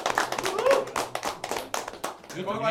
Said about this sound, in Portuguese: E então, uma salva de palmas pra todos nós, que todo mundo aqui é trabalhador.